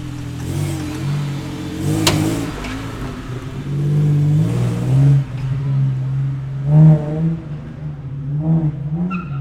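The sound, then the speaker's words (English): A classic sports car engine idles with a deep, throaty rumble, then revs several times in short, rising bursts, loud, with no one speaking. “Just to view these vehicles is spectacular, to hear them, even more so.”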